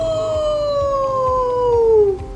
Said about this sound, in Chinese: 各式各样的狼嚎。